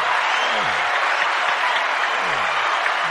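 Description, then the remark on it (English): Steady, dense applause fills the whole stretch, a crowd clapping at an even loudness with no pauses and no voices rising above it. “I, I, let me give him a round of applause for that.”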